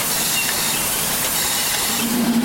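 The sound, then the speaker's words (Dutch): Factory machines, walked past on the way to the furnace, run with a steady, loud, hissing roar that fills the whole clip, and a low humming tone joins in near the end. No one speaks. “We lopen nu langs de machines richting de oven.”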